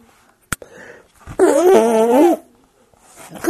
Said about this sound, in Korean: 며느리가 방귀를 끼기 시작했어.